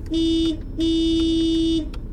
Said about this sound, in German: Ja, da kannst du ruhig hupen